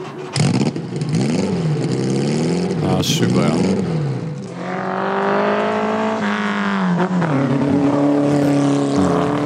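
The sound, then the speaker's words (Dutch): A 718 RSK Spider sports car, chassis number 718 004, revs hard, its harmonic pitch sweeping up and down through several throttle blips before settling into a sustained, rising drone as it drives off, with a brief voice over it. “andere auto die het ook wel goed zal doen qua rendement 718 RSK Spider. laat we even luisteren.”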